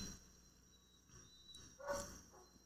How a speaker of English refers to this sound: The dog's barking like crazy. I think somebody's walking by.